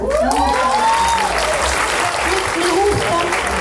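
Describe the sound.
An audience claps steadily for a few seconds, a dense, continuous patter of applause with a few voices calling out over it.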